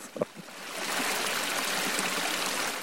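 The Rižana river flows steadily with a continuous rushing and babbling of water, swelling in after a couple of faint knocks at the very start.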